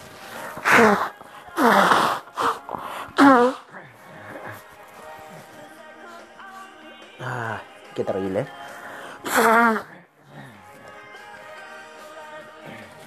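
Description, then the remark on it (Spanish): Someone blows their nose into a handkerchief several times in short, forceful, honking bursts, with a few brief spoken words between the blows. “Oye, em, ya, nos sonamos, todo bien, vamos como niñitos.”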